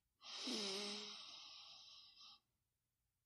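A slow, steady breath drawn in through the nose during a breathing exercise, airy, lasting about two seconds with a soft whistling edge before it stops and quiet follows.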